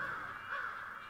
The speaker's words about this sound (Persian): صدایی که میشنوید یک جمع کلاقه که داره پرواز میکنه هیچ صدایی از انسان ها نمیشنوید